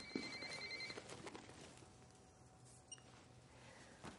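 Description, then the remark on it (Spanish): A mobile phone, taken from a handbag for an incoming call, rings with a high electronic trill for about a second, then stops, leaving faint rustling and a brief tonal chirp; no one speaks. “Coge su bolso, saca el móvil y responde una llamada de Raúl.”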